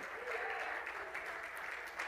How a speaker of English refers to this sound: Hallelujah. Let's clap our hands and praise Him this morning.